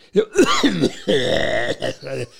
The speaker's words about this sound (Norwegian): Hoster opp i lungene.